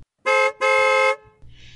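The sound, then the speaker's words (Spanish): A car horn, sounded by Stammers down below, honks twice, a short blast followed by a longer one, loud, then fades into quiet background noise. “Abajo, Stammers hizo sonar la bocina.”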